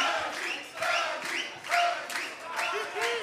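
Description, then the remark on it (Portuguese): A crowd of organized supporters (torcida organizada) shouting and cheering in loud, repeated surges, voices rising together in a rough rhythmic pattern like a chant, with dense overlapping yells throughout. “Vamos, vamos, vamos esse coro aí, como é que é?”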